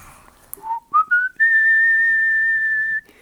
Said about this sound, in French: mon père, il m'appelait le sifflant en cul. Je sifflais tout le temps.